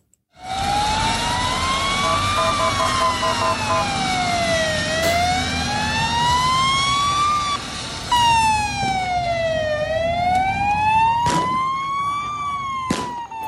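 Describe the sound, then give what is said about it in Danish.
Loud, wailing emergency sirens rise and fall continuously over a dense wash of street noise at a Sunday street demonstration where the military was deployed, with a few sharp bangs or clatters cutting through near the end. “Jamen, det er fra søndagens demonstrationer, hvor, øh, hvor det gik øh, ret meget mok, øh, mildt sagt.”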